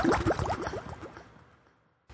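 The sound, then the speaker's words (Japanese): Underwater bubbling sound effect, a quick burst of many small rising bubbles that pop densely at first, then thin out and fade away over about two seconds. “ぷくぷくぷくぷくぷくぷく。”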